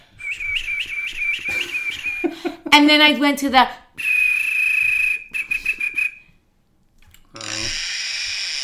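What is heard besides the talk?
human whistling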